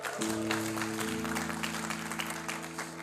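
A room full of people applauding steadily, dense clapping that fills the space for about three seconds, with a low sustained hum or chord sounding underneath.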